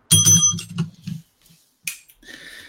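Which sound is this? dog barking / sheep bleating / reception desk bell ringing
reception desk bell ringing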